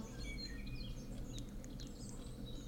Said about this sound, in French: Vous entendez un peu derrière euh, les bruits des, oiseaux mhm. J'ai fait exprès de mettre ça pour vous.